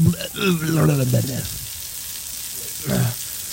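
A steady, bright hiss of water spraying from a garden hose runs the whole time, while a voice calls out at the start and again briefly near the end.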